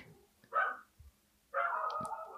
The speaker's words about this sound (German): Bist du abgelenkt von unseren Hunden hier? Ich hab, ja, ich habe gerade ein paar Hundis gehört.